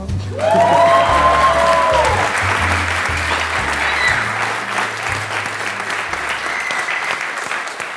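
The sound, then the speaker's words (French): Loud, sustained applause from a large audience fills the whole stretch, a dense wash of clapping with a low rhythmic musical backing underneath and a brief rising tone early on. “Si vous êtes ici, applaudissez nous Si vous êtes là, applaudissez-moi.”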